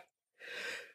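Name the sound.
sneeze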